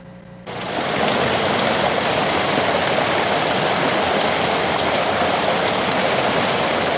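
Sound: heavy rain falling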